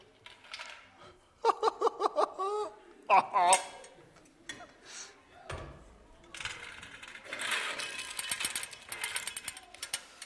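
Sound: gold coins clinking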